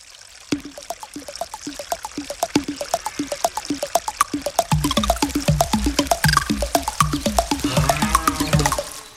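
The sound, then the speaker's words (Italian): Water from mountain streams in Courmayeur gurgles and bubbles steadily, flowing over rocks, with a quick run of splashy pops that gets fuller and busier toward the end. No voices. “composta dal vento che fischia tra i rami, dal gorgoglio dei ruscelli, dai muggiti delle mucche negli arpeggi in quota, che si combinano con i suoni percussivi dei picchi e dei campanacci delle capre.”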